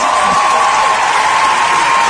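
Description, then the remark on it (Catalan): Loud, steady applause from a standing audience after an emotional speech, a dense continuous wash of clapping with no individual claps standing out, lasting the whole two seconds. “Doncs bé, és un discurs, ja ho veieu, eh, molt emotiu que va acabar amb aplaudiments i el públic d'empeus”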